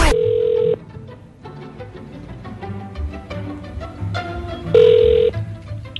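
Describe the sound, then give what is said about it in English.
Two long ringback tones of an outgoing phone call placed by the Z Morning Zoo radio show on Z104, each a steady mid-pitched buzz lasting under a second, separated by a pause, over a bed of soft background music. “Okay, I hope it's good because uh, we're going to be calling her when we come back next.”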